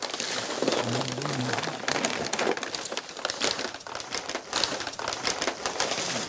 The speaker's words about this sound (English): He takes out different sized bundles wrapped in brown packing paper from the box. He places them on a table and unrolls them.